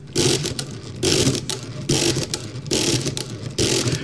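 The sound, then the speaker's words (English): A mechanical calculator adds or subtracts its input register to the accumulator, a loud rhythmic whirring and clattering of gears and ratchets that surges in about five repeated cycles, with no voices. “When you actually add the or subtract the input register to the accumulator, and it goes. that's a beautiful sound.”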